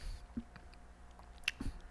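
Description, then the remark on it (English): Quiet chewing gum sounds: soft wet smacks and clicks scattered unevenly over a couple of seconds, with no talking. “I'm chewing gum and trying to find things all at the same time.”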